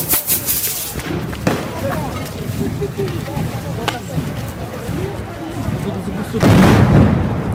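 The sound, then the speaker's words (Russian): Several loud, sharp blasts of stun (flash-bang) grenades burst out over a constant murmur of crowd noise, with one bang near the start, a couple more in the middle and a longer roar near the end, in an archive recording from Novaya Gazeta. “Да, а вот это светошумовая граната.”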